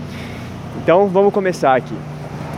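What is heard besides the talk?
street traffic noise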